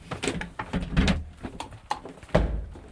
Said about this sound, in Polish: Trzeba jeszcze drugie drzwi otworzyć wewnętrzne i zapalić światło.